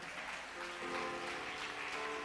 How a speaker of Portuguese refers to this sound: Aplauda Jesus, por favor.